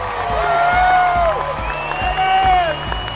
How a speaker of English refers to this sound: You hear the crowd.